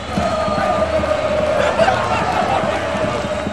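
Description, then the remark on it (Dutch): A dense outdoor crowd at the Gentse Feesten festival in Ghent roars and chatters continuously, many voices blending into a loud, steady wash of cheering and festive noise with no pauses. “Kent u dat, de Gentse feesten, de Gentse feesten, dat ze zijn. Nou ah, ja, ah, wel, dat klinkt zo.”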